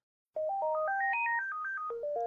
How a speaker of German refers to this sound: Das ist dieses Festnetztelefon von der Telekom. Ja, ist also einfach dieses, dieses Gigaset.